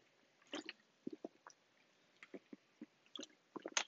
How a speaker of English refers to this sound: I should add some like um, water break music, so not have uh, either silence or listening to me chugging the water.